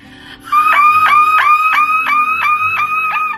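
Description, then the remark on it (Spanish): A woman's voice imitates an alarm, producing a loud, steady run of about eight quick rising whoops in a tight, even rhythm, with no talking. “y este sonido es el de la mujer que lo imita a la perfección.”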